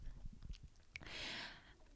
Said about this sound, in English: sorry, I'm sipping on my beer now.